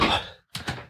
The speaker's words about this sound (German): So, jetzt mache ich eben noch hier ein Fenster zu, weil da draußen sind die Vögel zu laut.